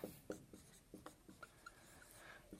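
Marker squeaking and tapping against a whiteboard in short, irregular strokes as a diagram is drawn, moderately quiet, with no one speaking.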